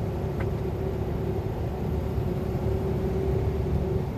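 A steady, loud engine drone from a Unimog truck cruising along a country road within the speed limit, with a constant low rumble and a sustained tonal hum, heard from inside with no talking.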